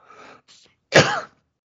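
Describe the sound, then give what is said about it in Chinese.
A couple of soft, breathy throat sounds, then one loud, harsh cough from a person suffering from gastroesophageal reflux, bursting out with a rough, voiced tail before fading into silence. No one speaks. “这咳嗽声我可以剪进去吗？”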